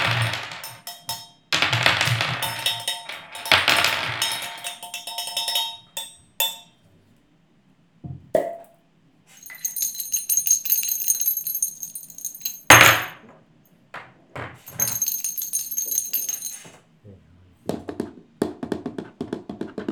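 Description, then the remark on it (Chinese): Dice rattle in irregular bursts of dry clicking and clattering, with short pauses between shakes, alongside some brighter metallic jingling. The sound is moderately loud, and no one speaks. “嗯，好加上一点骰子的声音。”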